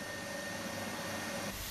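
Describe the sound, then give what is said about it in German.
A factory machine, fed by a screw conveyor with soybeans and water, mixing and grinding them into a soybean mash, gives off a steady, even whirring drone with a faint sustained hum, ending in a sudden louder low thump. “Wasser und Sojabohnen fallen hier runter und in der Maschine werden die Sachen vermischt und klein gemacht.”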